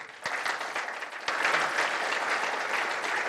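Sustained applause from an audience, a dense wash of many hands clapping that swells in loudness partway through and continues steadily to the end, with no voices over it.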